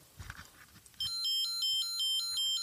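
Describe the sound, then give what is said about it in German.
An old Light and Sound toy police brick, still working, sounds: soft rustling, then a loud, steady electronic two-tone police siren wail that rapidly alternates between a high and a lower pitch, with no one speaking. “Das ist ähm, Polizei. Die guten alten Zeiten. Light and Sound. Funktioniert alles noch.”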